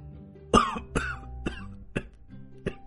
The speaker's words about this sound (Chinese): 大概是知道本来留给自己的晶核被赵凡吞了，楚风很是及时的发出了咳嗽。